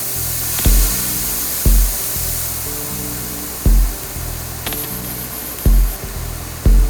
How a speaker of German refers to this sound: Das Ursprungsmaterial, wo das jetzt herkommt, ist eigentlich eine Hi-Hat. Glaubt man gar nicht.